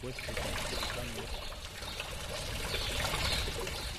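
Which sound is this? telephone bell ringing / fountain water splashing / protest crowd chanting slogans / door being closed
fountain water splashing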